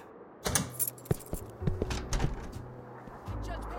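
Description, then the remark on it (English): Keys jingle and clink, followed by several sharp metallic clicks as a door lock is worked, over a low steady hum. “Oh, you don't have to lock the door.”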